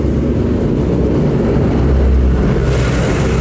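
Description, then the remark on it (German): A loud, low tractor engine rumbles steadily, a heavy motor droning and churning as the tractor rolls past in a farming region where biogas maize is grown, with a brighter hiss rising near the end. “Das ist Genau, die Trecker, ja.”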